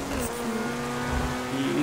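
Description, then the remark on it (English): A Lamborghini sports car engine in a video game hums at a steady, high-revving pitch, holding a sustained buzzing drone with faint shifts in tone throughout, fairly loud, with no talking over it. “How can you drive under us You're in a Lamborghini.”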